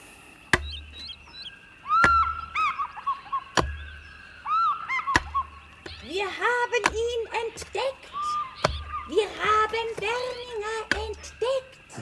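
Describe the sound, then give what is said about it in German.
A pickaxe strikes hard and steadily, one sharp blow about every second and a half, over high chirping, whistly tones and faint voice-like murmurs in the background. “Mit der Spitzhacke wirst du da dran? Ja, es geht nichts über eine Spitzhacke am Anfang.”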